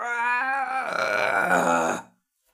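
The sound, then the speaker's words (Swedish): A voice imitates the dying whimper of a creature shot in the head with a crossbow bolt: one drawn-out, strained moan about two seconds long. It starts as a steady, tonal cry, grows rough and gravelly, then cuts off into silence. “Den här varelsen och kvider till med ett”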